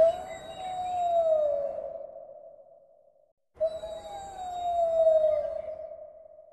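A coyote howls at the moon below a house, twice, each long, wavering call sliding slowly downward in pitch and lasting a few seconds, with a brief silence between them. The calls are clear, with no voices.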